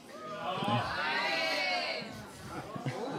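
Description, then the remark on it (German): An audience murmurs with mixed reactions to a question about winning the German championship, overlapping drawn-out voices and scattered groans rising together for a couple of seconds, then thinning into loose chatter. “Okay, die Meinung hier im Publikum ist geteilt, sage ich mal.”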